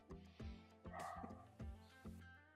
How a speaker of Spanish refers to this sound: Ah, espérame tantito, está ladrando un perro.